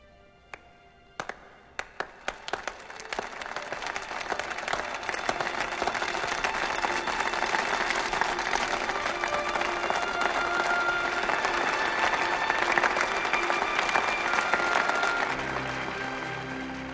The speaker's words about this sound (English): do you like the the slow clap at the end? I had that too.